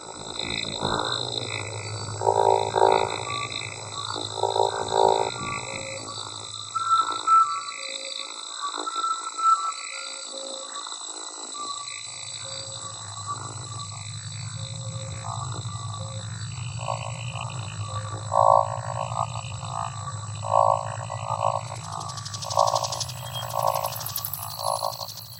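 Electroacoustic music, the eighth remix of a 1961 étude, made in 2016, produced, mixed and spectrally reconstructed, with steady, piercing high electronic tones over a deep rumbling drone, broken up by choppy, croaking synthetic pulses that start and stop in blocks. No voices.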